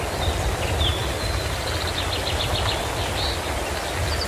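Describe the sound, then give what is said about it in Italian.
Birds chirp and trill repeatedly over a dense, steady wash of rain-like noise and low rumbling, a mixed forest and thunderstorm ambience from a background-sound app, with the birdsong fairly clear but partly buried. “No, facciamo finire il temporale perché mi fanno pena questi uccellini che devono cantare sotto il temporale.”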